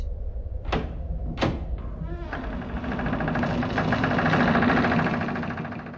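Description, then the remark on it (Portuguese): Two sharp scraping knocks as a chair is dragged back across a floor, then a long, loud, buzzing creak that swells and lingers as a door slowly opens, with no voices. “Ouviu a cadeira sendo arrastada para trás e a porta abrindo-se.”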